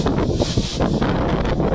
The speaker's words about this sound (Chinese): 听到树叶吗？风被树叶吹得哗哗作响。